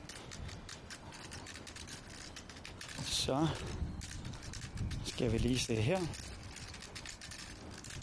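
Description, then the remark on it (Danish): A white cane taps steadily and quickly on pavement, a dense run of sharp clicks continuing throughout, with a man speaking briefly over it as he walks along a road past bicycle racks, listening to the cane's echo for obstacles. “Der, jeg kan høre lige nu på ekkoet, som min stok øh, laver, at der er nogle sådan forhindringer eller blokeringer eller et eller andet på min venstre side.”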